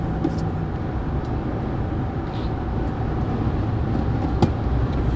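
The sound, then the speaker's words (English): A steady, loud low-frequency rumble of a 5.7-liter car engine heard from inside while driving in traffic toward New Jersey, constant throughout with a faint tonal hum and occasional small knocks. “you hear my engine roaring and my little uh, meanderings about traffic and such because I'm heading over to New Jersey.”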